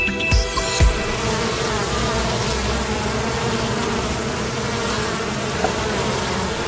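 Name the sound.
bees buzzing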